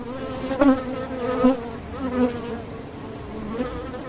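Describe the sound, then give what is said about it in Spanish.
Bees buzzing steadily, a dense droning hum that swells in brief louder pulses as individual insects pass, with no voices present. “Hoy hablaremos de las abejitas.”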